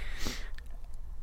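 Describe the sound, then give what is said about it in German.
A single quick sneeze, a sharp breathy burst of hiss that fades within a fraction of a second, followed by faint rustling. No one speaks. “Ähm, Gesundheit.”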